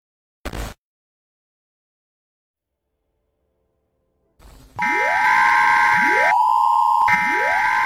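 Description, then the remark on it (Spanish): A loud electronic emergency alert siren for Mexico City starts after a brief click and silence, with repeated rising tones sweeping up to a steady high pitch, layered over a harsh buzzing wail. “Alarma de emergencia para la Ciudad de México.”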